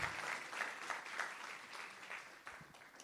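An audience applauds for the Lord, a dense crowd of clapping hands at steady loudness for a few seconds, with no talking over it.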